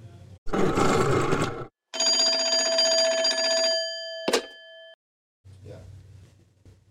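A roaring burst of noise gives way to a loud, steady telephone bell ringing for about two seconds, ending in a sharp clack, then a faint low rumble trails off.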